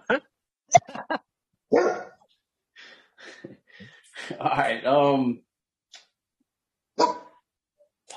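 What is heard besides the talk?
excited dog barking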